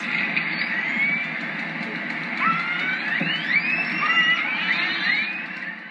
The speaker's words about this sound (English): A less confusing name for the wild creatures is orca, which you spell O R C A. Killer whales or orcas talk to one another with whistles, clicks, and calls like this.